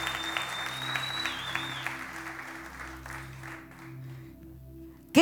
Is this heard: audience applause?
yes